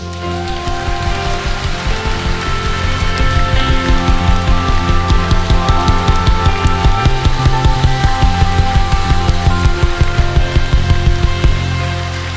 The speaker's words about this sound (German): Ihr Lieben, wie wäre das, wenn wir dem König aller Könige, Jesus Christus, dem Geburtstagskind, mal einen majestätischen Applaus geben?